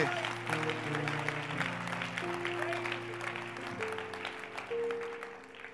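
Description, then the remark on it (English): An audience gives the Lord a clap, clapping steadily for several seconds in a dense crackle of many hands, while sustained keyboard or organ chords hold underneath and shift pitch a few times. “if you are giving the lord a clap go ahead”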